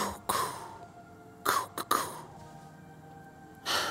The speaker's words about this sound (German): Ihr hört die Geräusche von Feuerwerkskörpern.